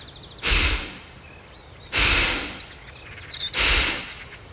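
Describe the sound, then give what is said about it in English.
A person imitates the heavy breathing of a deer calmly walking up to a hunter, with three loud, breathy exhales spaced evenly about a second and a half apart, while faint birdsong chirps in the background. “And I imagine me just walking up calmly in a way that never a deer has done. Exactly. Just a very like and you hear me breathe like”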